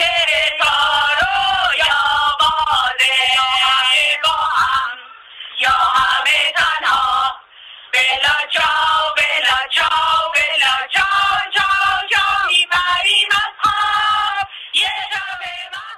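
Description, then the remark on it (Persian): A group of women political prisoners held in Evin Prison sing a freedom anthem together in spirited unison, their voices loud with a rough, shouted edge, pausing briefly before surging back in. “صدایی که شنیدید زنان زندانی سیاسی محبوس در زندان اوین بودند که با شور و هیجان سرود آزادی میخواندند آنها در صدایشان امید را در گوش همگان بیرون از دیوارهای بلند زندان زمزمه میکردند”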